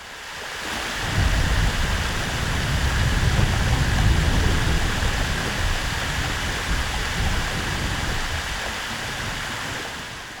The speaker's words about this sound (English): Here's what it sounds like when the ice is breaking off the glacier beneath the water and then rising up to the ocean surface.